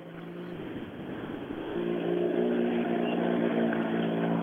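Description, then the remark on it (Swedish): A 240 Group H rally car's engine drones steadily as it drives a forest stage, its harmonic growl swelling louder and higher partway through as it accelerates. No voices are heard. “tre sträckor körda första gången i skogen då med en 240 grupp H, känns det?”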